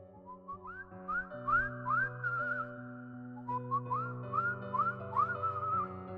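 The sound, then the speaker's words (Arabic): At 3:03 in the morning, someone whistles a series of short, rising melodic slides, repeated in two phrases at a moderate, fairly steady loudness over a sustained low droning tone, with no talking; the whistling comes closer and then moves away. “صوت الصفارة قرب وبعدين بعد زي ما جيراننا قالوا لنا بالظبط من اليوم ده واحنا بنسمع صوت الصفارة كل يوم بالليل وعمرنا عمرنا ما بصينا على مصدرها”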